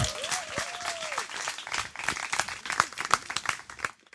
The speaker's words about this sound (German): Und hören und den nächsten Text. Applaus und Bühne frei.